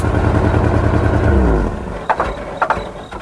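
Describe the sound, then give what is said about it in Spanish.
A loud engine revs up, its pitch climbing for about a second and a half before cutting out abruptly, followed by two sharp metallic clunks. “Porque cada motor es diferente.”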